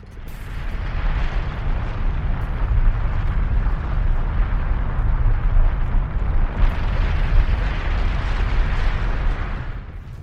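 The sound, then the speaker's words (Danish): A continuous, powerful volcanic eruption roars for the whole stretch, deep rumbling punctuated by dense crackling bursts and heavy booms, loud with no voices. “Det ulmer, det bulrer og brager.”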